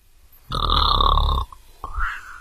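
A voice imitates a hippo asleep on a bridge snoring: one long, loud, rumbling snore, followed after a short pause by a softer, rising exhale. No one speaks.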